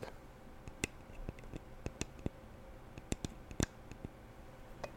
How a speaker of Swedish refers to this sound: Så vi kan lyssna på lite tapping här på parfymen.